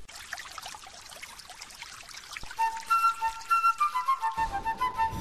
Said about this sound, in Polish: Napuszczaj wody!